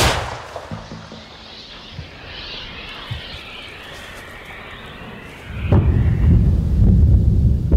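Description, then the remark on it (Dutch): Combat noise of gunfire and artillery from fighting around the village of Robotin in the Zaporizhia region: scattered sharp bangs over a rumbling backdrop, building to a heavy, sustained low roar in the final seconds. “hoort gevechten rond het dorp Robotin.”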